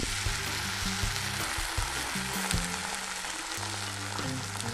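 A steady crackling sizzle of a rice cake soaked in egg yolk frying in a pan like French toast, briefly browned on both sides, continuous throughout with a low background hum and no talking.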